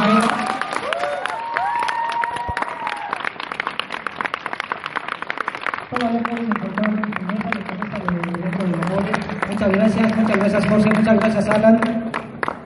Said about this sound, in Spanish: Con esto damos por concluida esta charla. Vamos a despedir con un aplauso a maestro Sergio